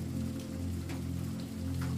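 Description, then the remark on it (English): Steady rain falls continuously, a dense patter of drops over a low, constant rumbling wash, with occasional sharper drips standing out. No voices are heard. “Cozy autumn vibes and rain sounds help you fall asleep in tonight's rainy bedtime story.”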